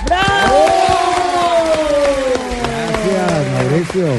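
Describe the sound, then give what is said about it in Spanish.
An audience on the show Bla Bla Blue claps and cheers to welcome Colombian actor Robinson Díaz, dominated by one loud, drawn-out whooping cry that slowly falls in pitch, with scattered sharp handclaps throughout. “Le damos un fuerte aplauso al señor Robinson Díaz.”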